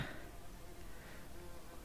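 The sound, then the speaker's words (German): A wasp buzzes steadily, a continuous droning hum with slight wavering in pitch as it moves around, sounding alone for the whole short stretch. “Das ist eine Wespe.”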